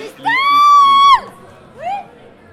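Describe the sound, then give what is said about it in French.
A loud, high-pitched sustained shout rings out for about a second, then a shorter whooping yell follows, both over a noisy crowd murmur as people cheer and holler. “Eh ouais Il n'y a pas que moi qui crie Comme quoi, finalement.”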